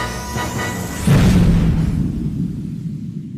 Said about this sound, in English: Woo! Oh, yeah! that was, that's what that was. first, first explosion of 2022.